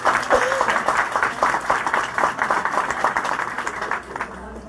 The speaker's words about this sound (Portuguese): Então, um aplauso para o, um aplauso para o Coletivo Alvorada.